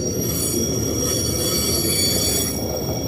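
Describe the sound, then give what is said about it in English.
A long train rolls steadily past, its wheels letting out sustained high-pitched squeals over a dense, continuous rumble with no pauses. “It's a long train.”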